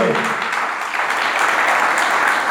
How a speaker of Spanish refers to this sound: Denle el aplauso al Señor, por favor.